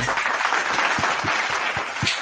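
A short burst of steady, dense applause from a small group, many hands clapping at once in a continuous crackling wash with no voices.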